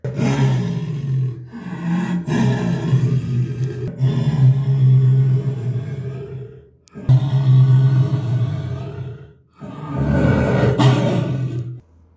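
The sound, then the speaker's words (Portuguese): A jaguar's deep, rumbling roars sound loud, in several long bursts separated by brief pauses, each a throaty, grinding growl with no voices around it. “Foi aí que ele ouviu o som da onça.”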